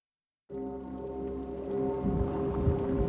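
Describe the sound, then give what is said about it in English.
Steady, heavy rainfall hisses in after a brief silence, layered under a deep, sustained droning tone that swells slightly louder partway through. No one speaks. “In 1315, Incessant rain ruined crops across Europe.”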